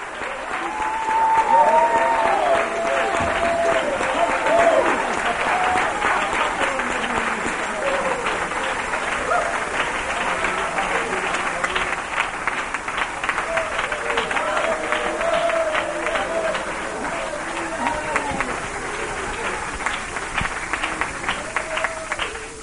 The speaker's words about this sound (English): Let's give him another hand clap offering.